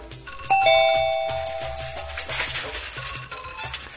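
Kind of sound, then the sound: household object, doorbell ringing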